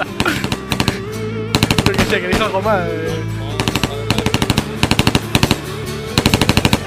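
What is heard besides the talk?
machine gun fire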